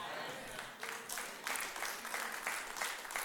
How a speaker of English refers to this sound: Okay, that got an overwhelming applause.